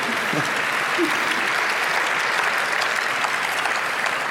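Steady audience applause fills the whole stretch, a dense, even wash of many hands clapping at a constant level with no pauses or swells.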